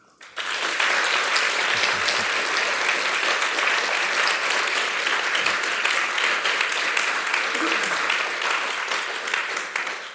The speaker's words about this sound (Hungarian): Szeretnék én egy tapsot nekik.